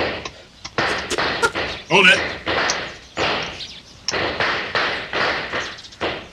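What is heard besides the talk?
distant gunshots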